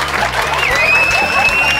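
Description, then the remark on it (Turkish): An audience claps in a steady, dense burst of applause that holds at an even, fairly loud level, with murmuring crowd noise and a thin, high whistling tone running through it. “Mesela dünyanın düz olduğuna inananlar alkışlasın şu anda mesela.”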